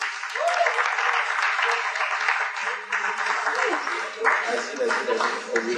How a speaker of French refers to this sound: Euh, merci, merci beaucoup. Je pense que vous pouvez encore l'applaudir.